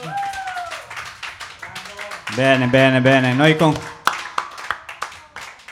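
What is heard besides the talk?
audience applause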